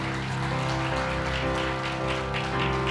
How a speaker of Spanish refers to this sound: Alguien le da un aplauso a Cristo.